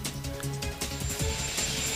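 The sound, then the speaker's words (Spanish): A large United States Navy helicopter powering up, its rotors beginning to turn amid a loud, steady engine roar and low droning hum, with no one talking. “Ya ahí se empiezan a mover las hélices de este impresionante helicóptero de la Marina de los Estados Unidos.”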